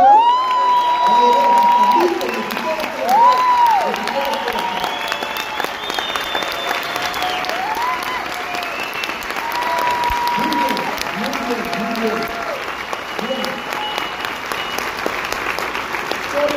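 crowd, audience applause and cheering

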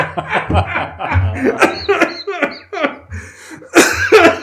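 human body sound, violent coughing fit

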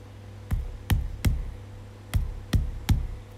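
impact, knocking on a wall

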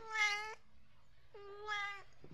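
animal, domestic cat meowing

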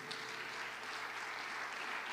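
crowd, audience clapping

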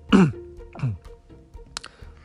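human body sound, coughing and throat clearing

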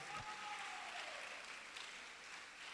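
crowd, audience applauding

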